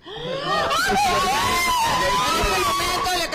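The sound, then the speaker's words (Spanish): Several family members cry out and sob with joy at once after learning by phone that their mother's execution has been stopped, a loud, emotional outburst of overlapping high-pitched wails and excited shouts that continues without pause. “Reaccionen con lágrimas y gritos de felicidad, gracias al momento que han esperado por más de 15 años.”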